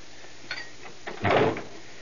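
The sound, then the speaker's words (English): A door being shut: a couple of faint clicks from the handle, then one solid, muffled thud as it closes. No one speaks. “You misunderstood. I didn't say shut the door.”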